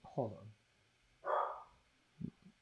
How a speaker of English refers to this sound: my dog's barking.